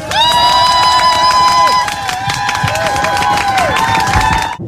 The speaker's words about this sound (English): As we did with the act in the first section, let's please greet every act in this section on with a rapturous round of applause.